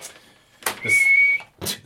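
A person whistles an intro, a single short, steady note held for about half a second, with breathy puffs of air just before and after it. Fairly loud, with no talking.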